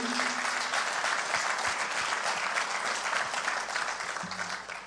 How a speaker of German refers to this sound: Oh, was für ein Moment, oder? Ich liebe das, wenn wir zusammen Gott anbeten können und die Band uns einfach jedes Mal so vor den Thron Gottes stellt, können wir der Band einfach mal einen Applaus geben.